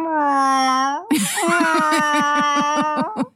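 A cat yowls loudly from inside a transport carrier: a long, steady wail that breaks into a rapid, pulsing, warbling cry, continuous for several seconds with no other sounds around it.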